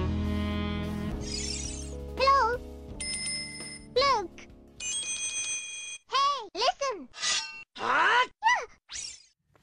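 A jazz cover of a video game's main theme plays: bright chime-like bell tones and sliding, bending melody notes in short phrases over a sustained chord, fairly loud with no talking.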